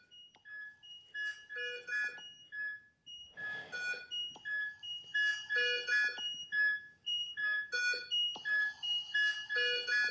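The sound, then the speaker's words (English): Overlapping electronic alarm tones from several ICU patient monitors, attached to an intubated patient on a breathing machine, chime and beep in repeating, clashing patterns, steady and fairly loud throughout, with no one speaking. “She was intubated, and uh, she was on a breathing machine, and all the monitors.”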